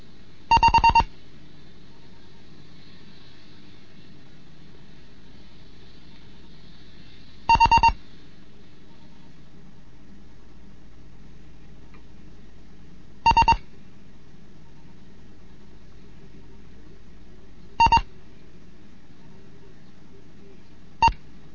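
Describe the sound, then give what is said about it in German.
Morse code beeps from the sixth lesson of a Morse code course: five short bursts of a steady, high-pitched tone, spaced several seconds apart, sounding over a faint low background hum with no talking. “mit dem Morseunterricht Sechste Lektion”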